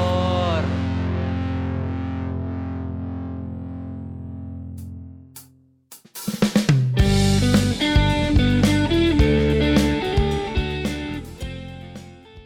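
A recorded song: a sustained, ringing chord slowly fades out, then after a brief pause a loud full band bursts in with heavily distorted guitars and steady pounding drums.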